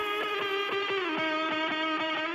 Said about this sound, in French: Alors c'est marrant, la, guitare sur le début du morceau qu'on va écouter sonne presque comme une mouche ou un moustique fou.